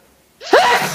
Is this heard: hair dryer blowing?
no